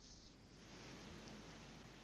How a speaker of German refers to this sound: ich wohne ja unterm Dach und jetzt kommt voll der Schauer gerade. Das höre ich durch die Kopfhörer.